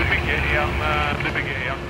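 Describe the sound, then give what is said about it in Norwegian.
A helicopter in flight over mountains and sea at Fosen in Trøndelag, Norway, on a wet, rainy September day in 2012 gives off a steady, loud engine and rotor drone that fills the whole two seconds without letting up, with a faint voice just beneath the roar. “I et helikopter sitter en mann med blå allværsjakke og øreklokker og ser utover et stort område av fjell og sjø på Fosen i Trøndelag.”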